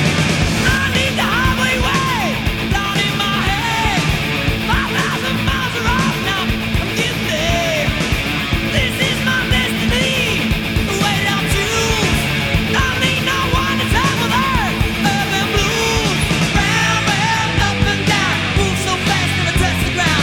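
A loud, dense hard rock song plays straight through, with distorted electric guitars and raw, shouted-sounding vocals driving over a steady full-band backing, and no one talking over it. The song is from a band's 1988 debut album.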